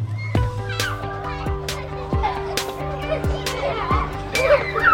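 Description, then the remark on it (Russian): On an early summer morning, children from the neighbouring houses play a tense ball match in a courtyard. A ball thuds at a steady rhythm of about one bounce a second, while young voices call and chatter under the bouncing. “С самого утра тут происходит напряженный матч. Играют дети из соседних домов.”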